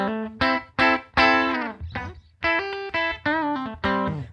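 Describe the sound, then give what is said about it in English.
A clean electric guitar tone with no effect pedals engaged and the tuner taken off, played in a pedal demo, plays a short phrase of about eight bright, ringing chords and notes in an uneven rhythm, a few wavering with vibrato, with no one talking. “So here's my clean sound.”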